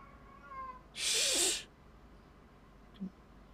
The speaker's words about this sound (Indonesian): Kucing biasa.